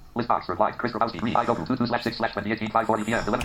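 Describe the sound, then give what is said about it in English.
A rapid synthetic JAWS screen-reader voice speaks continuously through a USB 2.0 speaker connected to a laptop, its clipped syllables steady and fairly full-bodied, clear with no other sounds around it. “And as you can hear, Jaws is now coming out of the speaker with a richer, fuller sound than that offered by the laptop.”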